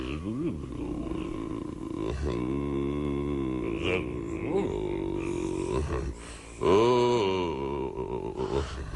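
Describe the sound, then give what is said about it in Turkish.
A man's voice imitates elephant calls, producing low groaning roars and rumbling grunts in a continuous run of drawn-out, wavering vocal bursts, the loudest near the end. “Filce konuşuyorum.”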